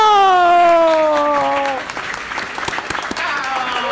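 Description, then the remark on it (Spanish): An audience breaks into steady applause as Vinicito is announced winner of tweeter of the year, a dense crackle of many hands clapping, following a loud drawn-out voice whose pitch slides downward over the first couple of seconds. “Gracias, gracias por aplaudir.”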